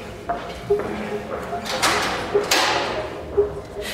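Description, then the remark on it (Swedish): People move into the large police headquarters building on Kungsholmen in Stockholm, Sweden: doors slide and thud, footsteps and rustling echo indoors, and indistinct voices murmur in the background. “… och vår researcher … är på väg in på det stora polishuset på Kungsholmen i Stockholm”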